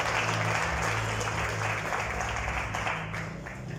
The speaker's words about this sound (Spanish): Denle el aplauso a Cristo Jesús, por favor, esta tarde.